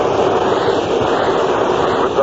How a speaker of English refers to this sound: airplanes today going over this park now so low that uh, almost reach up and touch them.